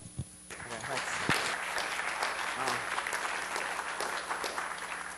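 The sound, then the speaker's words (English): An audience at a lecture breaks into sustained applause before the speaker starts his talk, dense and steady clapping that swells quickly after a brief quiet start and carries on for several seconds with a few voices mixed in. “Uh, clapping before I even start.”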